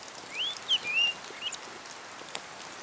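A chiguanco thrush with yellow legs, fluffy greyish plumage and a yellow beak, perched outside a house window, sings a short phrase of clear, high whistled notes that slide up and down, followed by quiet with only faint background hiss and no talking.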